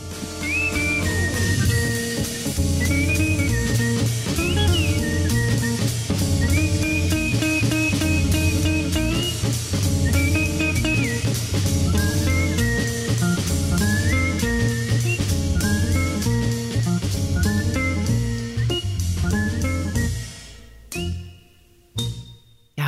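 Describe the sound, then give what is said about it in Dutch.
A man whistles a high, clear melody that glides and trills while he plays his own separate line on guitar, a steady accompaniment, continuing for about twenty seconds before fading out with a few final notes. “hij speelt ook echt een andere stem met zijn gitaar dan wat hij fluit, hè?”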